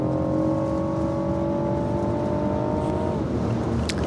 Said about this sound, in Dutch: Zo hoor je dat motorgeluid. Zo, die driecilinder power.